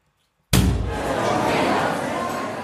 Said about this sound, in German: Da schlägt auf einmal die Tür auf.